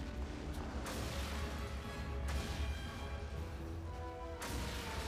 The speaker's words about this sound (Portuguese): Tá aproveitando o efeito de explosão aí. animação de explosão.